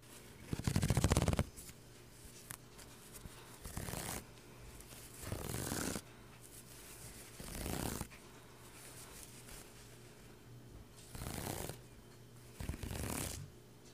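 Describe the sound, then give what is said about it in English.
Crochet stitches are ripped out (frogged) in about seven raspy, zipper-like pulls, each lasting under a second, spaced a second or two apart, fairly loud with no talking. “Once I'm frogging ASMR.”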